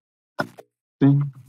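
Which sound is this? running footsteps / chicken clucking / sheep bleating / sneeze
sneeze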